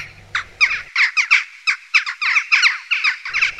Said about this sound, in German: Die Dohlen, äh, die kennen Sie wahrscheinlich am ehesten aus winterlichen Schwärmen, mit Saatkrähen zusammen über die Stadt fliegend und dann erkennbar an ihren durchdringenden Rufen.